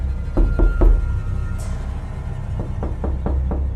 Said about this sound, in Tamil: அப்போது திரும்பவும் அந்த ரூமோட கதவு தற்ற சத்தம் கேட்குது